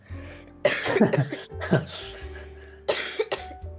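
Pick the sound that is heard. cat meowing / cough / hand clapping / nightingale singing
cough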